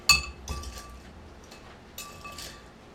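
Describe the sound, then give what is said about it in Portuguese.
Ice cubes clink and rattle into a tall long-drink glass as a drink is prepared, a sharp bright knock at the start followed by several lighter clatters spaced over a few seconds, with no voices. “Nosso gelo hoje não tá ajudando.”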